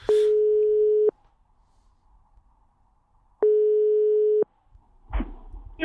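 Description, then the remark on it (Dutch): Two long, steady electronic ringback tones about two seconds apart, each lasting roughly a second, from an outgoing telephone call, followed by a brief clatter as the phone line picks up. “jij hebt eh, voor deze opname gebeld met de winnaar.”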